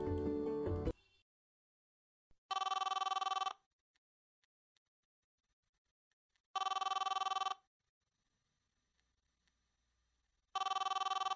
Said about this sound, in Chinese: 那么今天节目的一开始，先来接听我们打来的电话吧。